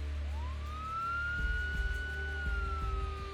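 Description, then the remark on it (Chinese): A distant police siren wails in a long, steady rising-and-holding tone, fairly faint, with a low rumble and a few soft thumps underneath, on a cold, rainy winter day; no one speaks. “远处的警笛省时有时无”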